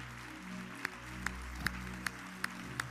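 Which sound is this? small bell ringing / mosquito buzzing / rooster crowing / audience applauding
audience applauding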